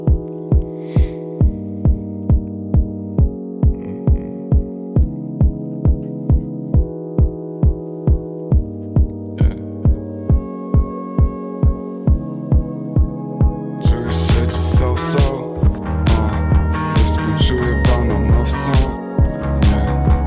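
A music track plays with a steady, thumping beat under sustained tonal layers, then swells into a fuller, brighter and louder arrangement for the second half. No voices are heard.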